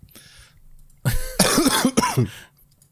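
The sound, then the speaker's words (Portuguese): A man chokes and coughs in a loud, rough fit of several harsh bursts with strained, gagging voiced sounds, trailing off after a couple of seconds. “Engasga-se todo.”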